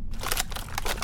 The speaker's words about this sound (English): Hey, what is that noise? Ah, that is the sound of a fracture. The pieces are grating against each other when you put pressure along the horn.